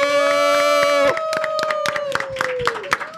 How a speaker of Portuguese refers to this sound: Uma salva de palmas pra Priscila Bruno que tá aqui comigo!